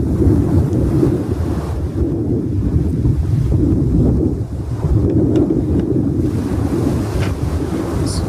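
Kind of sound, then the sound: nature, wind and surf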